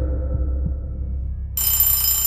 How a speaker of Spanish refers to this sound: Un sonido estridente me saca del sueño profundo. Abro los ojos y golpeo al despertador, esperando que alguno de esos malditos botones pare ese sonido.